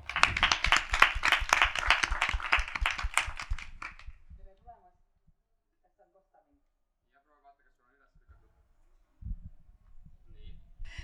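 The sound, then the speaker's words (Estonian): An audience at a workshop on the future of learning breaks into loud, dense applause for the discussion leader for about four seconds before it quickly dies away; after a quiet stretch, someone starts speaking near the end. “järgmisena mul on hea meel sisse juhatada workshop, kuidas toimub tuleviku õppimine, paneme käed kokku, teeme ühe palava aplausi meie arutelujuhile”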